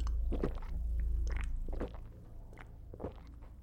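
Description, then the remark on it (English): Heavy gulping as a man drinks 66% proof vodka in an off-licence on Shaftesbury Avenue, swallowing it in several big glugs, each wet swallow landing at uneven intervals over a low, rumbling background. “the only sound that … heard was a heavy gulping as he necked back great glugs of 66% proof vodka”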